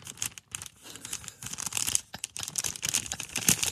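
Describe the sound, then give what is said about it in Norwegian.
Busy crinkling and tearing of thin transparent wrapping paper as a gift holding a Rumi Utsugi football card is unwrapped, with rustling bursts and brief pauses, no voices. “Det er Litt gjennomsiktig papir.”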